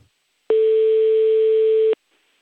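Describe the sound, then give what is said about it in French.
A single long telephone ringing tone, a steady, clear electronic beep lasting about a second and a half, heard alone with silence around it, as a phone call is placed to a guest. “et je vous propose qu'on l'appelle tout de suite pour qu'il nous livre son témoignage.”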